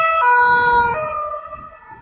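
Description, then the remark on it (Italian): A loud police siren wails, its pitch dropping as the vehicle passes, with a low rumble of road traffic underneath that fades slightly toward the end. “Adesso così, attenzione, polizia.”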